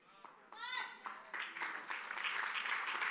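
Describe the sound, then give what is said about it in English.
An audience bursts into applause that swells into a dense, steady wash of clapping, with a few cheering voices and a rising whoop near the start. “Please don't clap for me.”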